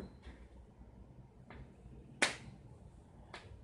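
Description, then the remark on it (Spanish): A single sharp hand clap, made by a person clapping to show how a sound source pushes on the air molecules, rings out, bright and loud, with a short decaying tail, over a low steady background hum and a few faint soft clicks before and after. “acabo de aplaudir y en este caso yo debería yo debería ser la fuente porque con esta acción estoy ejerciendo una, una fuerza o una presión en las moléculas del ambiente, que podemos decir que se encontraban en reposo,”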